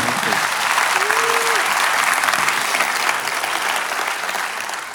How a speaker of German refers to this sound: Nochmal Applaus für dich.